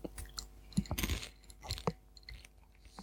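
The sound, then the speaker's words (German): Loud chewing with repeated crunchy bites, irregular bursts of crackling as a snack is munched, with no talking. “Frau Kau, ne, weißt du eigentlich, was du mir für einen Stress machst?”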